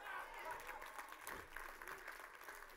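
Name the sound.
audience clapping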